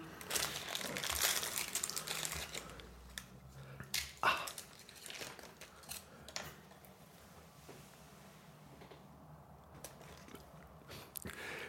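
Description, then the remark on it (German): Crinkly plastic wrapper of a fortune cookie being torn and crumpled open, a busy stretch of rustling and crackling with a few sharp snaps, then quieter scattered crinkles. “Das befindet sich immer in einem Glückskeks.”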